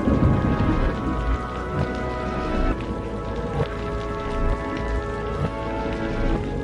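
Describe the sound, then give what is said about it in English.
Heavy rain pours steadily and loudly throughout, with deep low rumbles of thunder rolling underneath and a faint sustained tonal hum in the background; no one speaks. “She pretended not to notice, gathered her things, kissed me on the forehead, left the house, diving into the storm without hesitation, and ran to her small car.”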